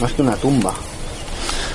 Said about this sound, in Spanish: Es que es, raro. Estamos en un sitio un poco tétrico y oír los pájaros de fondo, insisto, ¿eh? pero es que es tan raro. Bueno, ya te digo, eso es porque es la primavera, entiendo, ¿eh?